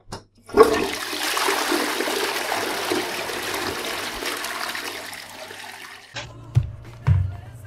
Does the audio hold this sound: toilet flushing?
yes